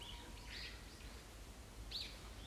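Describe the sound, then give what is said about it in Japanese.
Birds chirp in a park in short, high bursts, a few separate calls scattered over a steady low outdoor rumble, fairly quiet, with no one talking. “鳥のさえずり”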